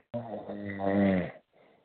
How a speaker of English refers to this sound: Wow, it sounds like you're snoring. I'm not. I, I am kind of fading in and out, unfortunately. I'm just I'm exhausted.